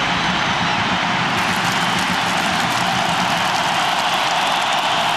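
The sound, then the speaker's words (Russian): A large stadium crowd, including many children, applauds during a football match between Krasnodar and Rostov in a dense, steady wash of clapping that holds at an even, fairly loud level throughout, with no voices standing out. “Вы слышите аплодисменты.”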